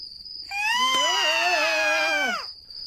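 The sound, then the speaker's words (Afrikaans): Several children scream together in a sustained, high-pitched chorus lasting about two seconds, loud, then cut off abruptly, with a faint steady high whine in the background. “Maar al die kinders skree nou.”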